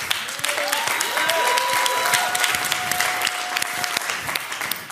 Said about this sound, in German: Ihr lieben Nürnberger, falls ihr, nicht, ihr es nicht wusstet, ja, an dieser Stelle klatschen auch alle Erlangen und Ansbacher mit, ja. Sie begrüßen euch, euch auch, okay?